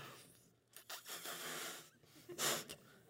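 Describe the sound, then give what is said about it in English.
Someone at church, speaking into a microphone, strains to blow up a balloon, with several forceful, airy puffs and wheezy hisses in uneven bursts, the last one loudest, plus a brief spoken word. “making fun of me because I can't blow up a balloon?”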